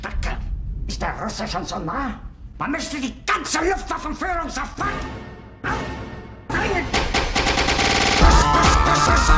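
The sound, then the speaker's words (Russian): Dense bursts of rapid cracking and popping as New Year celebration fireworks go off, a near-continuous barrage building louder toward the end, with people talking underneath. “за Новый год, за, собственно, празднование Нового года сжигается 120 миллионов евро фейерверков, И, в общем, да, грубо говоря, просто все взрывается, везде”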